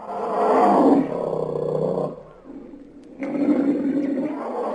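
A lion roars in deep, rumbling bursts, two long heavy roars separated by a brief lull, loud with no talking.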